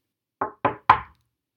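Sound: knocking on a door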